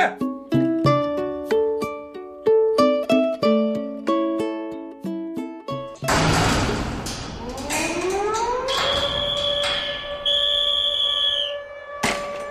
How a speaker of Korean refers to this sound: 교도소 거기 뭐 긴 말이 필요 없는 것이죠. 벨이 울리면 점호하고 호루라기가 울리면 동작 멈추고